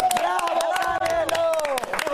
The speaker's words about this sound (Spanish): No, pero la verdad la pelea estuvo muy buena y nada, felicidades al Canelo, de verdad que sí. Un aplauso, un aplauso muy grande.